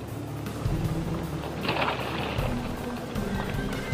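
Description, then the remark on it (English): A steady mechanical drone from a lobster boat's winch (hoister), with the warp taken a couple of turns around the winch head, hauls in a lobster trap, its low motor tone shifting pitch in steps, with a brief splashy rush partway through as the trap breaks water and is hauled on deck. “He enters it in the snatch block, takes a couple of turns around the winch head, and the hoister takes over the work. The trap breaks water and is hauled on deck.”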